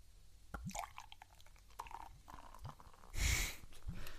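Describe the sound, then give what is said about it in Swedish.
Young's Double Chocolate Stout beer glugs and splashes into a glass, with scattered drips and gurgles, then a brief loud fizzy rush of foam before the pouring trickles on. “Häll upp så vi får höra det mysiga ljudet av.”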